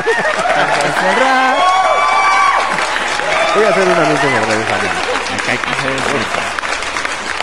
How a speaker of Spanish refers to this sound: No importa cuánto rock and roll te guste, pero felicidades. Aplausos, maldita sea.